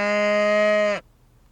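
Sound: cows mooing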